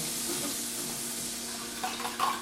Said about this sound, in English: I'm gonna put a nice tablespoon of butter. So this is good temperature. Yeah. By the sound of it, you can see. Yeah. So I'm even putting a little bit down.